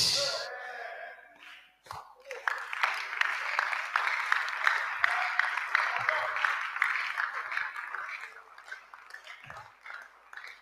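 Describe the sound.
A crowd breaks into sustained applause, a dense wash of many hands clapping that swells after a brief pause and continues steadily for several seconds before easing slightly, with faint voices mixed in.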